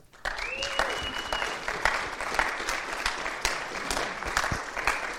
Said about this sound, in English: Uh, so let's give him, I don't know if we do this very often, let's just give him a hand.